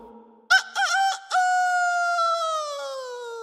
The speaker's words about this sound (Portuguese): Faísca é o nome do galo citado. Sua fama correu por todo o estado.